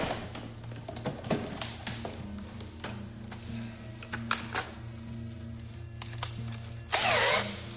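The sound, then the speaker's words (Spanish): An electric drill fitted with a very fine bit, used at a safe, whirs steadily with a low motor hum, punctuated by sharp clicks and brief bursts, ending in a louder high-pitched grinding burst near the end. “Saca un taladro y le pone una broca muy fina.”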